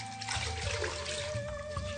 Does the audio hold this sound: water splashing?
yes